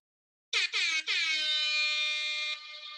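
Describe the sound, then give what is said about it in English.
A loud DJ air horn blasts three quick stuttering hits, then holds one long brassy blare that fades slightly at the end, with no voices. “It sounds like uh, … is about to drop a new … joint back in 95”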